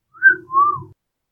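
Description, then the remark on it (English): A person whistles two short rising-and-falling notes in quick succession, fairly loud, with no talking around it, imitating the whistle of the character Grix. “Uh, Grix will whistle.”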